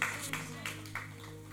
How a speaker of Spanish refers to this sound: Y todo el mundo lo aplaudió como usted lo aplaudió.